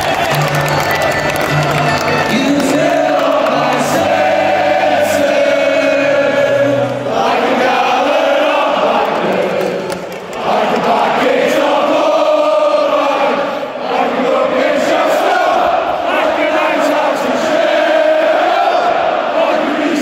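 A large football crowd at Bramall Lane sings a Sheffield United stadium chant in unison, loud and continuous, with rising and falling melodic phrases over a dense roar of voices for about twenty seconds.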